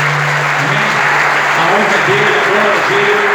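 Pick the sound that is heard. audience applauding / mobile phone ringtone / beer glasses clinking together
audience applauding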